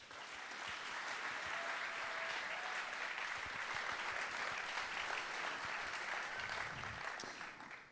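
A crowd applauds steadily for the full eight seconds, a dense, even wash of many hands clapping with no voices standing out, fading slightly only at the very end.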